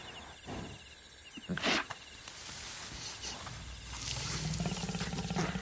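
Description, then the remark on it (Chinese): A lioness gives a brief, throaty roar that swells and fades within a second, followed by low rumbling growls over a steady background hiss, with no talking. “不过就在他刚刚蹲下的时候，意外发生了，一头母狮子迎面走来，然后。”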